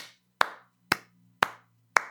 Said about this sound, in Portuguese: Vou até aplaudir mais um pouco vocês, ó.